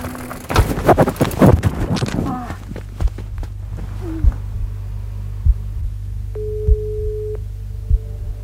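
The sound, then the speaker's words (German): A mobile phone buzzes in a trouser pocket with a steady low vibration, pulsing with regular thumps, and a brief electronic ring tone sounds partway through, just after a cyclist has laid down their bike. A burst of voices and rustling comes just before the buzzing starts. “Ich habe mein Radl gerade hingelegt, wollte gerade meinen Handschuh ausziehen und in dem Moment hat es vibriert und geklingelt und ich ziehe mein Telefon aus der Hosentasche.”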